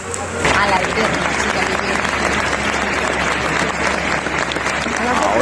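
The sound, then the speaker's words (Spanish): Sustained applause from a large crowd of Valladolid residents as the coffin of Concha Velasco leaves the cathedral, dense steady clapping that starts abruptly and continues loud and even throughout, with scattered voices mixed in. “Sí, hace tan solo unos segundos el féretro con los restos de Concha Velasco ha salido de esta catedral, de nuevo arrapada por los aplausos de sus vecinos, de los vallisoletanos.”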